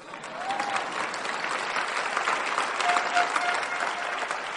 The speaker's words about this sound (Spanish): Tienen que aplaudir, por favor.